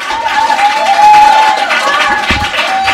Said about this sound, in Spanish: Eh, un aplauso e un me marcho te dejo a ti.